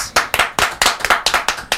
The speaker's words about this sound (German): Meine Damen und Herren, einen fetten Applaus für Eva Ries.